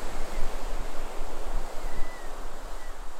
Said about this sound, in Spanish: Mientras más consciente te haces de este patrón, nota cómo el mar parece respirar al igual que tú. Nota cómo el vaivén de las olas te habla y te pide que te unas a él.